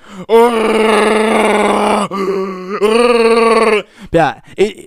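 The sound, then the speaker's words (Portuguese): A human voice imitates the way the speaker's dog snores while it sleeps: two long, drawn-out groaning tones, each a couple of seconds, followed by two short rising grunts. Loud and steady, with no other talk. “E eu não sei como os caras não escutam o meu cachorro dormir, que ele dorme assim.”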